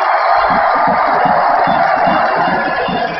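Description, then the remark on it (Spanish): A tennis crowd at Tecnópolis roars with sustained, loud cheering and applause after Leo Mayer wins the match point against Joe Sousa, a dense wall of voices and clapping with a rhythmic pulsing underneath, continuing without a break throughout. “No dejen de aplaudir a Joe Sousa ahora que se puede.”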